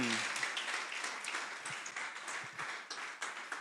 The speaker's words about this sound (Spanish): ¿Qué tal si le dan un aplauso al Señor?